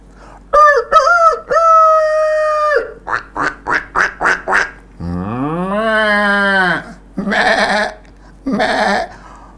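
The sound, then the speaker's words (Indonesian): In the morning on a large livestock farm, a rooster crows loudly, then a quick run of duck quacks, a long low cow moo, and a few more noisy squawks, a farmyard chorus with no talking. “Setiap pagi yang ada itu suara ayam, bebek, sapi.”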